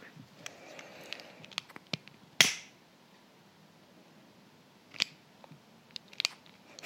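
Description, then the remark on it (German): A lighter is flicked: one sharp, scratchy strike with a brief hissing tail, then a second quicker click a few seconds later, with faint small ticks and handling noises in between. No one speaks. “Das hier nennt sich Feuerzeug.”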